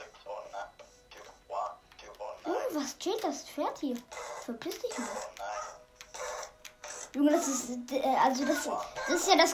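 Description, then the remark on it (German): A child screams and shrieks in the background in repeated high-pitched bursts, growing louder and more sustained toward the end, mixed with other indistinct voices. “Geschrei, was man immer hört, wenn … mit in der Aufnahme dabei ist”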